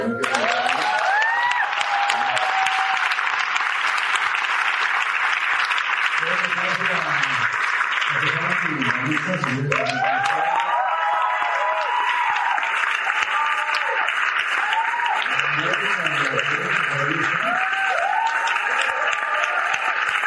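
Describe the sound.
Steady, dense audience applause lasting about twenty seconds, a broad crackling wash of many hands clapping at once, with a voice occasionally talking underneath.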